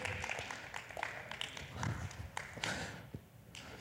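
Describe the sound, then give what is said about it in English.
Chairs being lowered and height-adjusted, a run of irregular clunks, taps and rattles with brief hissy bursts, fairly loud. “Man, I'm going to lower these a little bit.”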